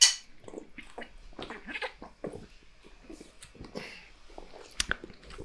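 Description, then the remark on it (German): Someone takes drinks of a cool non-alcoholic Holsten beer, with a run of wet gulps, swallows and lip smacks over several seconds, fairly quiet and irregular, ending in a couple of sharper clicks. “Dagegen trinken wir ein kühles Blondes.”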